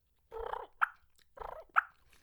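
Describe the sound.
Two clear rounds of a turkey purr and cluck played on a turkey hunting call: a short rolling, fluttery purr each time, then a single sharp, bright cluck, with no talking.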